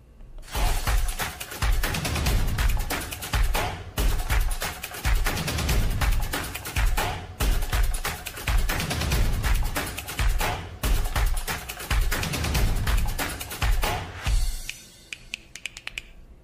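A loud, punchy opening jingle with a driving percussive beat that plays steadily for about fourteen seconds, then cuts off abruptly, leaving a brief quiet tail. No one speaks.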